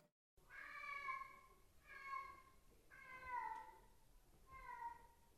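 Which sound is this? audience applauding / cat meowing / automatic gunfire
cat meowing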